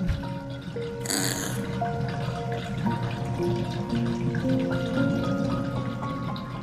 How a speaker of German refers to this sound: Jetzt lässt du das Wasser aus der Wanne und spülst euch beide noch einmal ab.